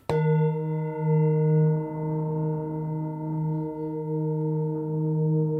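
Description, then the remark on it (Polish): A singing bowl gong is struck once, then rings on with a low, steady hum and shimmering higher overtones that waver and beat gently, sustaining loudly throughout without any voices. “Misa Gong. Kiedyś leczono takimi migreny.”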